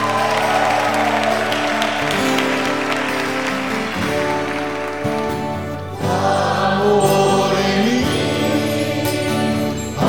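A national community gathering applauds itself steadily for about ten seconds, a dense, loud wash of clapping and cheering blended with sustained musical tones underneath.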